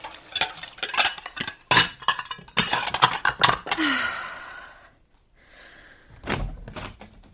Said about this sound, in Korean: 누구나 짐작하듯 이건 설거지하는 소리다. 뭔가 다른 점이 있다면 출근 후 나의 첫 임무가 바로 이 설거지라는 것 정도랄까.